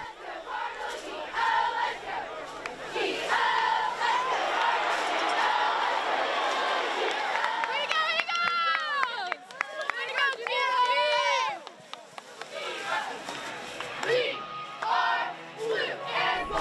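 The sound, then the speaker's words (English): Cheerleaders chant loudly in unison at a high school football game, their rising, shouted calls layered over a steady roar of crowd noise, with a burst of high-pitched yells midway through. “can't go to a football game in Texas, or just about any other athletic activity, without hearing something like this.”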